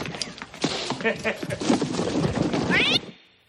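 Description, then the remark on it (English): A cat wrapped up inside a box meows and yowls repeatedly amid loud rattling and thumping as the box is shaken, with a rising, wavering cry near the end before it cuts off. “He's like, he's wrapped up her damn cat, and he's like, and he like shakes oh. the box.”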